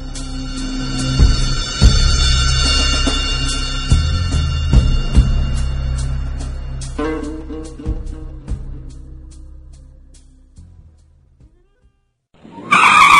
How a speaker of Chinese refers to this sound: 一阵急刹车传来，一台吉普车停在了廖家的大门口。